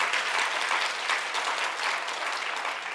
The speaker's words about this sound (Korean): 여러분 박수를 치려면 확실히 치십시다. 시편 47편 시편 47편 1절에 보면은 손바닥을 치고 하나님께 영광을 돌리라.